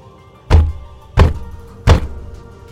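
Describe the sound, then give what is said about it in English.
Three heavy, booming knocks of fists pounding on a wooden bedroom door, evenly spaced about two-thirds of a second apart, loud with a short resonant decay after each blow. “The loud sound of fists pounding on the bedroom door rang out.”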